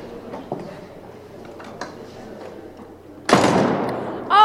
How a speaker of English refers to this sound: Oh, a slam door from Marjorie oh. Taylor Greene.